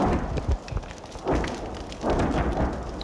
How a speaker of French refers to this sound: L'obus russe vient de frapper, la maison brûle en crépitant, la position ukrainienne ratée juste derrière, elle riposte